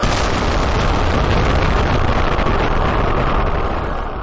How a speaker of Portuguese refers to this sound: dia 16 de julho de 45. Fizeram um teste, 5 e meia da manhã explodiram. Gente, explodiu. Cara, transformou em vidro a areia do deserto em um raio de 80 metros em volta da, da explosão, cara.